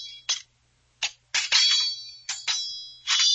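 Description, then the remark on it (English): Sharp metallic sword clangs, about seven strikes in quick irregular succession, each ringing with a bright, sustained high-pitched shimmer. Loud, with no voices. “That's what the sound like.”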